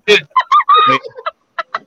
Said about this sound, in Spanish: escuche, escuche, escuche el gallo de Mr. Cash.